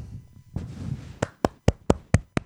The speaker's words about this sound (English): Woo, yeah! It looks weird when you clap by yourself, let me tell you that.